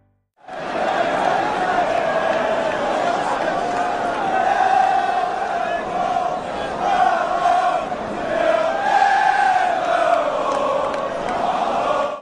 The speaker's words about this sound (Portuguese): a torcida do Liverpool ainda assim cantava. Nunca abandonou o time, e não seria hoje.